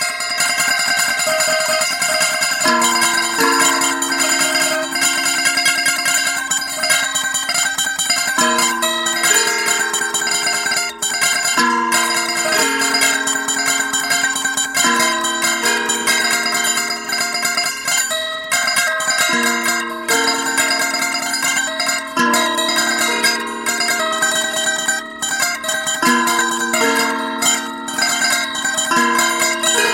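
Instrumental film score music with bright, bell-like chiming tones ringing over sustained low notes that shift every few seconds, steady and full throughout, with no voices.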